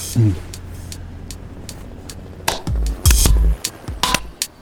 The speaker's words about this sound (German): Wir klatschen auch zwischendrin. Ja, das klatschen das schon. Bravo.